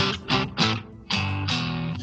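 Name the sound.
guitar with reverb effect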